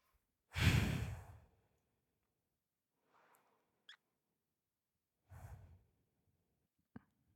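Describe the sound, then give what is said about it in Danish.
A person with eyes closed draws a slow, deep breath, followed by a softer breath and a second deep exhale, with a few faint mouth clicks in between and no talking. “Så prøv lige at lukke øjnene, og så tage nogle gode, dybe vejrtrækninger.”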